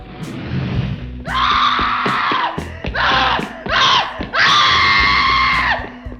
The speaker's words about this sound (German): das ganze Treppenhaus runter vor die Siedlung und man konnte sie über den ganzen Kilometer der Siedlung schreien hören.